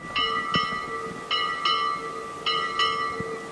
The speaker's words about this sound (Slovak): Takto zvoní zvon, ktorý sa nachádza vo Svetini v kostole v Liptovskom Ondreji, o ktorom sa rozprávame v dnešnom pútnickom víkende.